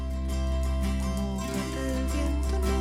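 An experimental rock song plays loud and continuous, with sustained keyboard chords holding steady tones over a dense, full band texture and no voices.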